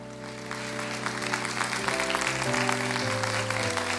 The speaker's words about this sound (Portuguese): Vamos fazer um barulho abençoado aqui de palmas e de louvor. Aleluia!